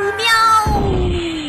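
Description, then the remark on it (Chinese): A single long, loud cat meow that starts high and strained, then slides downward in pitch and trails off, like a pained yowl, from a cat in a story whose tail is being cut with a knife. “猫先生说着，用力切了下去。喵。”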